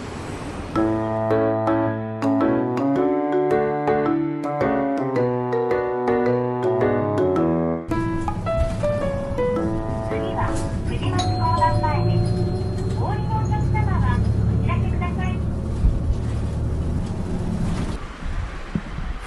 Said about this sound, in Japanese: 今回はバスに乗って目的の団地に向かいたいと思いますだいたいね、え時刻表で言うと12分ぐらいで着く団地ですそれじゃ行ってみましょう